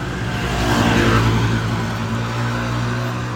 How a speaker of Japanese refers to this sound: すいませんちょっとバイクね通りましたけど